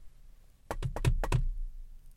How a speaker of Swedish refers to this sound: Men man tittar inte på väggen man knackar på, man tittar liksom uppåt. Som att det är liksom själva känslan i knacket som avgör vad det är. Det är som att ljudet inte spelar någon roll. Och så knackar de en gång till.